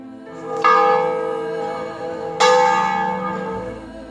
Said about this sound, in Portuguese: Em Ouro Preto e Mariana, os toques dos sinos têm a função de anunciar eventos cotidianos